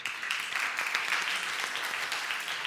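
An audience gives a polite round of applause as a man is invited to the stage: many hands clapping in a dense, even patter at moderate volume, with no one speaking over it.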